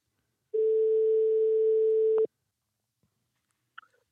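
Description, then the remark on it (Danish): A single long, steady ringback tone from an outgoing phone call placed from a studio to a guest for a market update sounds clearly for under two seconds, then cuts off with a click as the line connects, followed by faint handling noises. “Så må vi se, om han øh, vil tage telefonen om i dag.”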